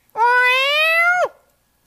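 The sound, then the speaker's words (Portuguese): A single drawn-out cat meow, loud, holding a steady pitch for about a second before dropping off at the end, with silence afterward. “Agora é gato.”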